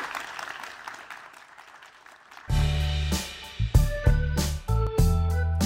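A crowd applauds steadily for a couple of seconds, a dense patter of many hands at moderate volume, before a loud music jingle cuts in and takes over.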